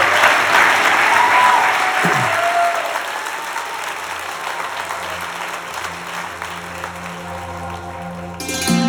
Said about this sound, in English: Guys, let's give it up for ….